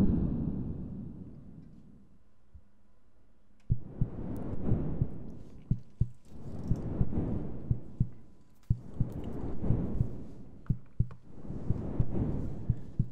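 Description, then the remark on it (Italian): Deep, booming heartbeat-like throbs swell and fade in a slow steady rhythm, with sharp metallic hammer-like taps scattered through them, all part of a moody video game soundtrack with no voices. “Sentite queste, queste martellate, poi questo battito del cuore.”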